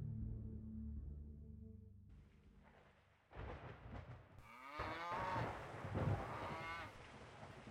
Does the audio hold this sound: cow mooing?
yes